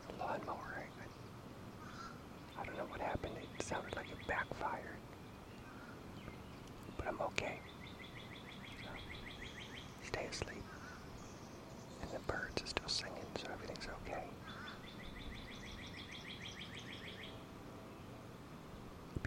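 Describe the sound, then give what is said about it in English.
Birds chirp outdoors in repeated high, rapid trills, coming in short bursts. Soft rustling, breathy noises and steady background hum run underneath. “so nice if it was just birds, not all these other noises”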